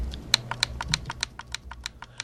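A rapid series of crisp, clicky presses of a keyboard's media key buttons, about fifteen in quick succession with an uneven rhythm, fairly quiet over a low background hum, with no one talking.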